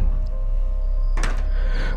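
A door is opened midway by a roommate, with a short rattling burst and a faint lingering squeak, set against a steady low background hum; no one speaks.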